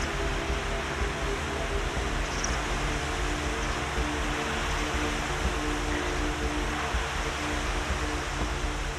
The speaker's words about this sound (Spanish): Pero si observo a los lados del acantilado. El agua sigue fluyendo, sigue su curso.